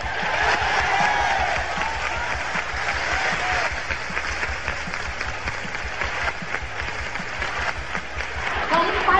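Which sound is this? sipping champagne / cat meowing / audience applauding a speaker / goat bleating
audience applauding a speaker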